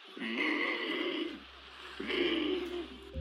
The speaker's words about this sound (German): Also dieser riesige Geier, der in den Anden lebt und tatsächlich wie ein fliegendes Warzenschwein klingt.